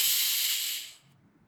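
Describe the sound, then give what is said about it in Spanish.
A steady, airy hiss of a deep breath drawn in, loud and breathy for about a second before it fades away into near silence, an inhale for a count of four in a breathing exercise of four-second cycles used to calm down. No one speaks. “Ahora para proyectarlo te voy a compartir un modelo de respiración que utilizo yo para entrar en calma y respiración en ciclos de 4 segundos, es decir, inhalo en 4,”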